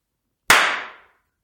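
One sharp hand clap rings out on its own, a crisp, bright snap that fades away over about half a second with no voices around it.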